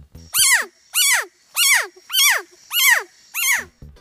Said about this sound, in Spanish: La respuesta es C, una rana ternero de la especie Leptodactylus pentadactylus, quien hace este sonido particularmente cuando son alzados con las manos. Se cree que con este sonido buscan asustar a los depredadores que los estén atacando